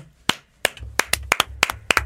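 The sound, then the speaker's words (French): A few people in a show's control room clap their hands in a loose, uneven rhythm, with sharp claps coming a dozen or so times over a couple of seconds. Nobody speaks. “Moi, je veux tout le monde, je veux que vous applaudissiez à la maison, en régie, tout le monde, on applaudit.”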